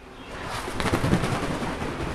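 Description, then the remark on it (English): An owl named Papa Gaho flies, its wings giving off a series of soft, breathy whooshing flaps against a low, rumbling background, with the beats swelling briefly in the middle. “It's not loud, but that's the sound of Papa Gaho flying.”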